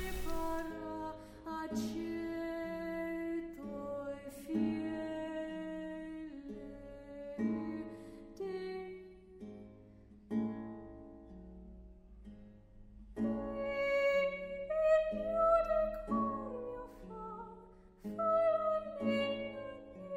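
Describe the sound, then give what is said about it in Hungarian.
Slow, mournful singing of a 16th-century composition in sustained tones, its melodic line repeating a minor-second step back and forth again and again to build tension. Several voices blend in rich harmony, with no speech over it. “században ez a szerző ugyanúgy egy kis szekund ismételgetésével a lancolamban hozza a feszültséget, pont úgy, ahogy a, a Cápa című filmben, és ez a fenyegető kis szekund lépés ismétlődget.”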